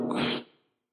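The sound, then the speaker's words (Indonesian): A single short, forceful sneeze imitated by a human voice, a loud breathy burst lasting about half a second before quickly fading to silence. “Dia pura-pura bersin.”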